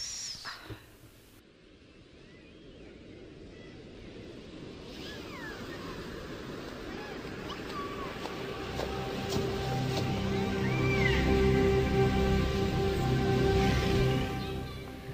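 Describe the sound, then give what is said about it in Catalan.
Sea waves wash and roar steadily while an eerie, wordless singing voice, the song of the mythical sirens, rises over them, holding long gliding notes that swell as the surf grows louder. “Ho sentiu? És el cant de les sirenes que ens criden i ens embruixen amb la seva veu.”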